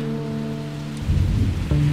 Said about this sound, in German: Anfang 2020 die Stadt Wien empfängt uns mit Regen und heftigem Wind.